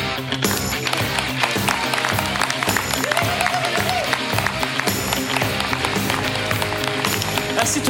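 Dense, steady applause from an audience fills the whole stretch, loud and close, with rapid overlapping claps and a busy crowd texture. Nobody speaks over it.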